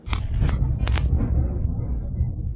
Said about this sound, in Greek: Εκρήξεις ακούγονται στη ρωσική πρωτεύουσα μέσα στη νύχτα.